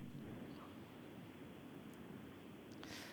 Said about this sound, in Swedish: Eh, han står mitt ute på fältet. Det blåser bra här.